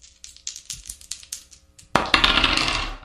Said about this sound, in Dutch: zullen we nu kijken of we hem dobbelen of niet? Heb je, heb je de dobbelsteen eh, bij je? Ja, we hebben de dobbelsteen bij me.